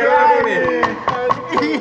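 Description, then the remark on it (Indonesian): Four sharp knocks on a door, which the talk says is a guest knocking again, land at an uneven pace. Each is a short, dry thud that rises above a steady layer of voices and tonal background sound. “Kayaknya dia ngetok pintu lagi deh.”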